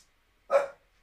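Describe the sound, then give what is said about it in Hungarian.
A single sharp, loud dog bark, with silence before and after it. “Megnézem, miért ugat.”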